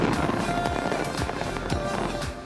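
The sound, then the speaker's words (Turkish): A New Year fireworks display in New Zealand welcoming 2021: a steady rumbling, crackling wash punctuated by sharp booms and pops roughly every half second, fairly loud throughout, with no one talking. “Binlerce kişi 2021'e havai fişek gösterileriyle merhaba dedi.”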